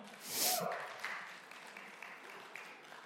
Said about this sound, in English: They're clapping here for you